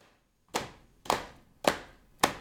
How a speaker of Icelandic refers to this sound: Við settumst í ring, klöppuðum taktinn til að líka eftir stappinu og klappinu sem Ingi Börg talaði um og síðan reyndum við að láta hvæðið passa inn í rittmann.